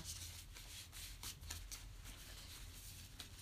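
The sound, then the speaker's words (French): A deck of cards is shuffled to offer a card to the audience, a soft, steady riffling with quick repeated flicks running throughout, ending as a card is drawn; no one speaks. “Alors, je vais vous proposer une carte.”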